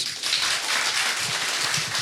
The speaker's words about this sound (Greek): Ένα χειροκρότημα. Καλά τα πήγε.